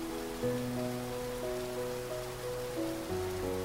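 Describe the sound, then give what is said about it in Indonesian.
Steady rain hisses evenly in the background while soft, sustained musical chords shift slowly over it; there is no talking. “Seperti musikalisasi sabda hujan.”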